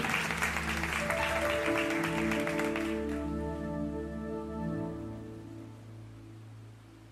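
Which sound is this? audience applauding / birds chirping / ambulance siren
audience applauding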